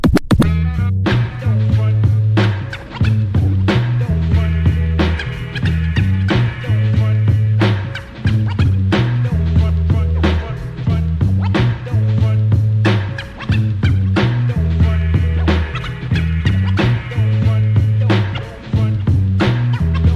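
A hip-hop track plays loud for the whole stretch: a steady, punchy drum beat over a repeating deep bass line, with turntable scratches cutting in throughout.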